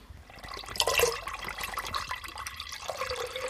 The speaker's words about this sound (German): Dann nehmt ihr eure Milch und kippt das in diesen großen Topf, den ihr bereitgestellt habt.